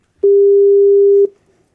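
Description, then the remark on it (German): A single steady telephone ringing tone while a call is being placed: one clear, loud, one-second beep in a flat mid pitch that cuts off abruptly, with no voices. “ich würde sagen, wir rufen den Schlummo an”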